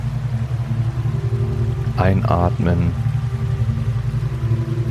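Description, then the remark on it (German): Steady running water hisses evenly throughout, with a low droning hum underneath, while a voice briefly speaks a single word in the middle. “Und bei dem Geräusch von laufendem Wasser im Hintergrund versuchen nicht alle drei Minuten aus Klo rennen zu müssen.”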